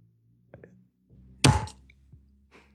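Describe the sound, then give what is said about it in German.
A swing-top Flens beer bottle opens with a single loud, hollow pop, preceded by a couple of faint clicks from the clasp and followed by a soft fizzing hiss. Nobody speaks. “Ach, jetzt weil wenn ich schon Flens trinke, dann müssen wir auch das Flens ploppen.”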